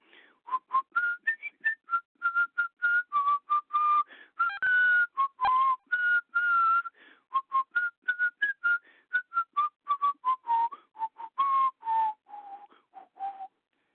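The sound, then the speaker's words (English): A person whistles a song's melody for about fourteen seconds, clear, with steady notes rising and falling in a lilting rhythm and brief breaths between phrases. “You I think every almost uh, pro, I I don't remember the words, but I think everybody recognizes that tune.”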